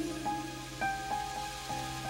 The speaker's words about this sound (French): Il pleut.